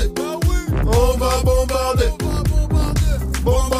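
A pop rap track plays loudly and continuously, with a heavy bass line, a steady punchy beat and melodic, slightly gliding vocal lines over the top.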